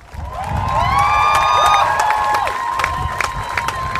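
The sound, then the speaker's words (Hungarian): An audience claps and cheers loudly for about four seconds for musicians called onto the stage, with steady scattered clapping beneath high, sustained whoops and shouts that rise and fall over the applause. “Kérek egy nagy tapsot nekik!”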